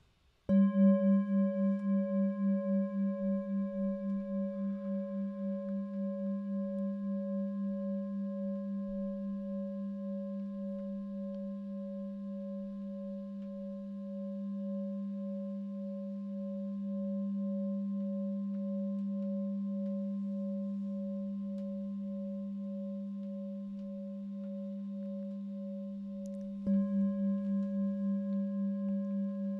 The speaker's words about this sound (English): So you just want to get yourselves comfortable. I shall sound the bell and begin the meditation.